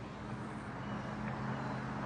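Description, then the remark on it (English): A bus drives past with a steady, low engine drone and road noise, holding an even loudness throughout, with no one speaking. “I mean, you see a bus pass, and all you know is that it's going.”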